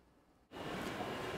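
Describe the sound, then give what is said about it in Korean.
After a brief quiet moment, a loud, steady wash of station noise cuts in abruptly at Shinjuku Station in Tokyo, Japan, a broad rumbling roar like a train moving through an underground platform. “이곳은 도쿄 세부 신주쿠역입니다.”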